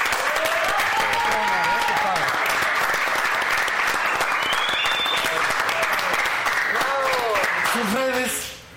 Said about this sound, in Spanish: un gran aplauso.